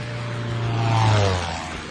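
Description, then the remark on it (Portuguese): A steady engine drone of an airplane passing overhead, swelling to its loudest around the middle and then easing off slightly, with a low humming tone throughout and no voices. “Um avião, né, cara?”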